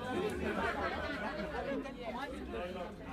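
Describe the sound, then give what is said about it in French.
Steady crowd chatter fills a village bar (maquis) in Kwanza, many overlapping voices murmuring at once with no single speaker standing out, a dense, continuous hubbub. “Et bien sûr, ils ont retrouvé cette ordure dans un endroit pas au maquis du village, à Kwanza.”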